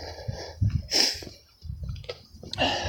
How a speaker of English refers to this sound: But I know that the phone compresses the breathing and that so you hear everything. Especially on a steep hill.